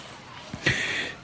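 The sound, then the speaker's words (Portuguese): Boys playing basketball in a residential condominium: a single soft ball bounce, then a sharp, half-second sneaker squeal over faint background activity, all fairly quiet. “Esse barulho que vocês estão ouvindo em volta de mim é o barulho de um, uns meninos jogando basquete em um movimento que está existindo aqui hoje no condomínio.”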